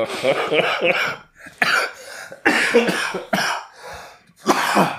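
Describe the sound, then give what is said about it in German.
A person coughs in a series of loud, harsh bursts with short gaps between them, some voiced sounds mixed in among the coughs. “ähm, Aber husten kannst du.”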